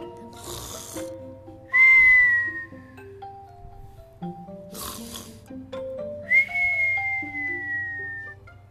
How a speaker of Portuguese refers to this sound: Antes, o gigante não conseguia dormir e agora o ronco dele já se pode ouvir.